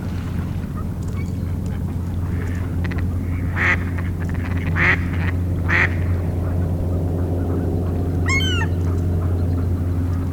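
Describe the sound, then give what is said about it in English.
Mallard ducks on Valens Lake, which is starting to ice over, give three evenly spaced quacks over a steady low rumbling drone, followed a few seconds later by a brief, higher, rapidly wavering bird call. “Mostly mallards, but there's a couple widgeons, a pintail, some shovelers.”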